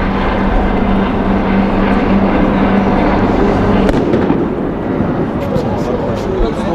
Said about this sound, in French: ça on tire les lacrymos sur le, l'autre partie de la manif, euh, y a des cailloux qui arrivent par ici, on il va certainement s'en prendre aussi. on tire les lacrymos.